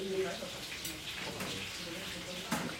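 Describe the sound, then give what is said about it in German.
Oil sizzles steadily in a soot-blackened cooking pot in a house, a continuous crackling hiss broken by a few sharper pops and spits, as a frittura, a stew of meat and vegetables, is prepared. “brutzelt das Öl im rußgeschwärzten Kochtopf.”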